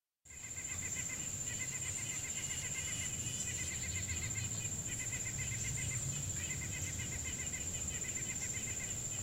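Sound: birds chirping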